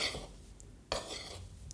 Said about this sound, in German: Und dann das Ganze einfach durchschütteln oder mit dem Löffel. Alles jetzt schön umrühren.